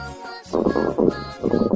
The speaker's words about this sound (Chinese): 咦，什么声音呢？ 嘿嘿，是我肚子在叫吧？但是肚子为什么会发出声音呢？